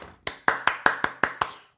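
A single person claps hands six or seven times in a quick, steady rhythm, each sharp clap crisp, with no talking in between, applauding a news story.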